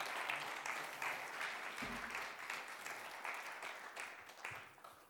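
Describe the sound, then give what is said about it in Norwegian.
Sustained audience applause welcoming a female guest, a dense wash of many hands clapping steadily for about five seconds at moderate loudness, with a faint voice briefly audible partway through. “Ta veldig imot og gi henne en god applaus.”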